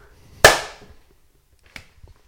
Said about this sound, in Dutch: Nee, gewoon één keer oh, oké, één keer. Ja. dan klappen we dan ook.